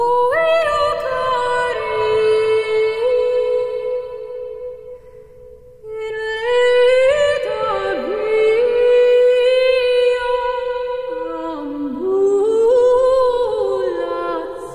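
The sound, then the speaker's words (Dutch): A solo voice sings medieval Latin chant from the Symphonia by the 12th-century German abbess Hildegard von Bingen, a set of 58 songs on Latin texts, in long, flowing melodic lines, sustained and resonant, with a brief pause near the middle before the melody resumes. No speech. “En zij componeert eh, een geheel van 58 gezangen op Latijnse teksten.”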